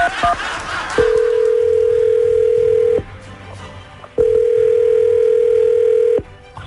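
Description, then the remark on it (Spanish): A telephone number being dialed: a quick burst of keypad beeps, then two long, steady mid-pitched ringing tones separated by a pause, with no one speaking. “Nomás con el nombre de Franco vamos a tratar de, de hacer algo, ¿ok? Vamos a marcar.”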